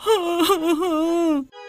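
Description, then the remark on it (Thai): A single drawn-out crying wail, tremulous and wavering in pitch, held for about a second and a half before breaking off abruptly; it sounds like a voice performing the sob of a fat frog in a children's story. “ไม่ต้องร้องไห้ไปหรอก”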